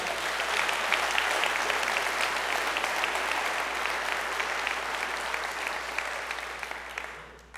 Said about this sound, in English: Listen to what the psalmist said in Psalms 47 and 1. Oh, clap your hands, all you people. Shout to the Lord with the voice of triumph. I think you do that at ball games, but it's okay in here.